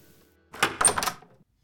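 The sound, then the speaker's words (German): A large, heavy door to a hotel's entrance area is opened: a short run of clunks and a creaky, scraping rattle over about half a second, with no one speaking. “Er steigt die Treppe herauf zum Eingang des Hotels und öffnet die große Tür zum Eingangsbereich.”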